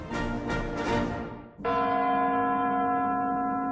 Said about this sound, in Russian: Сегодня под звон курантов мы встречаем Новый год. За эту красивую традицию мы должны быть благодарны Кристоферу Гэллоуэю, шотландцу, который создал одну из самых русских вещей